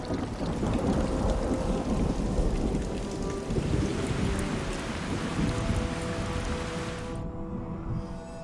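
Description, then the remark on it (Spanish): Heavy rain pours down steadily in a dense, hissing roar, with low rumbles of thunder rolling underneath; the downpour stays loud throughout and cuts off sharply near the end. “Le siguieron 30 años de lluvias.”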